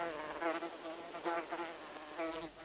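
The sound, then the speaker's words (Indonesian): Mosquitoes buzz steadily around a small hut lit by a dim lamp, a thin whining hum that swells and fades in a few pulses, with no voices present. “Cukup pondok kecil yang diterangi lampu temaram dan alunan dengung nyamuk-nyamuk usil.”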